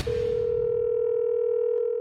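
A steady telephone dial tone for a phone call to Business France hums for about two seconds at a constant pitch, loud and unbroken, with no one speaking over it.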